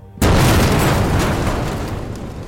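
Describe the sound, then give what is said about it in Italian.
A single loud explosion booms suddenly out of near silence at night at an airport during a gunfight: a sharp blast followed by a heavy, rumbling roar that slowly fades while staying loud throughout. “Un boato illumina la notte con il furore di un'alba assordante. Un'esplosione.”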